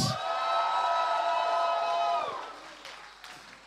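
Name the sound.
audience shouting and cheering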